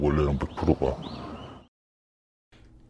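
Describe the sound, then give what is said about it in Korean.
A bird chirps briefly in the background, a thin high whistle rising over a man talking, then a moment of near silence before faint background noise resumes. “어, 뒤에 이제 새가 우는 게 좀 특이하고요.”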